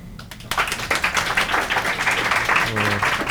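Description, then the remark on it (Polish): A crowd bursts into sustained applause after a brief quiet moment, many hands clapping densely and steadily for a few seconds, with faint voices mixed in underneath, the clapping being measured by an applause meter as an audience vote. “Czyli teraz ja uruchomię, uruchomię klaskomierz, Antoni będzie klaskomierzem.”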